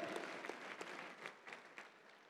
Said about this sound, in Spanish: Si le creas así al Señor, del otro aplauso fuerte al Señor y guárdeselo en su corazón